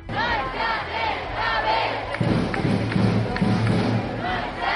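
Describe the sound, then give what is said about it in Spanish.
Thousands of young climate protesters at a Global Day of Action for Climate called by Fridays for Future shout slogans such as "No hay planeta B" together, loud overlapping voices rising in rhythmic chants, with a steady low rumble underneath and the crowd's noise swelling partway through. “No hay planeta B gritaban los miles de jóvenes que se manifestaron el pasado viernes por todo el mundo en respuesta a la llamada de Día de Acción Global por el Clima convocada por Juventud por el Clima Fridays for Future.”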